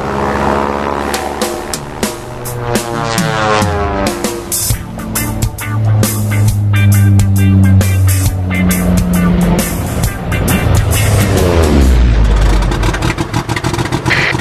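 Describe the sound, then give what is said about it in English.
A propeller airplane engine revs up loudly and steadily, its droning pitch sliding and climbing with strong harmonic whine as it powers up for takeoff, with no voices. “You are now clear for takeoff with Just Plane Radio, the show devoted exclusively to flying and the aviation lifestyle. Oh my god, we're in the air.”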